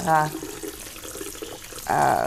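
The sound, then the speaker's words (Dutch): A kitchen tap runs steadily with warm water as about 800 grams of strawberries (two boxes) are rinsed under the stream, with a brief louder splash of tonal sound at the start and again near the end. “Eh, ik ga ze even onder de warme kraan wassen.”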